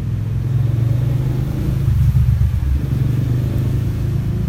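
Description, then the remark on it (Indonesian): A small engine rumbles steadily, a low throbbing drone that swells slightly midway as the three-wheeled bemo minibus passes, with no talking over it. “ada bemo lagi iya ada bemo lagi”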